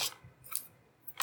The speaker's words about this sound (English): That noise is my eraser being dropped.